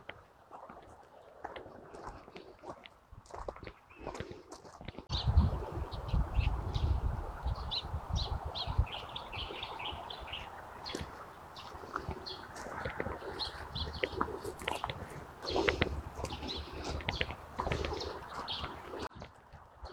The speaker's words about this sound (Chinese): 还能听到一些鸟的叫声吧。迁徙的鸟嘛，所以总是会有很多的嗯变化的。